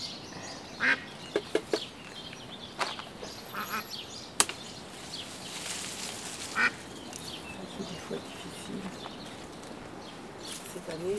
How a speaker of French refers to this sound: Et l'automne et l'hiver, il y a des canards sauvages qui viennent ici. Des canards très rares.